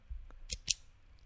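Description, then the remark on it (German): A ballpoint pen clicks twice in quick succession, two crisp, sharp snaps, with no talking. “Ein Kugelschreiber.”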